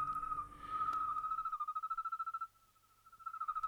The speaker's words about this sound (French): Je pense que ça, c'est des grillons. À mon avis, c'est le grillon des champs, mais qui doit être encore deux, octaves au-dessus, c'est-à-dire c'est le grillon des champs ralenti quatre fois.